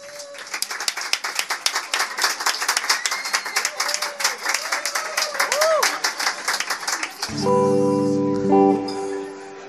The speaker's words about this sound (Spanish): Un aplauso, por favor